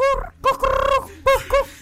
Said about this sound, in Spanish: ¡Es un gallo